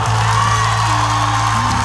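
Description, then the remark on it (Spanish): A church audience, with the women called on by the preacher, applauds and cheers in a dense, continuous wash of clapping and shouts, loud and sustained for the whole moment, with a low steady hum underneath. “Denle un aplauso, mujeres, ayúdenme allá.”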